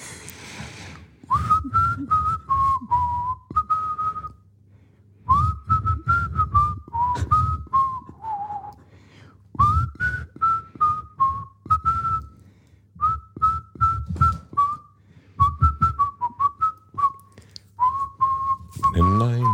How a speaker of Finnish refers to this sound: Nyt mä jo unohdin, että mikä, meidän pitäisi melkein katsoa ääninauhasta, että mikä, mitä mä yritin viheltää.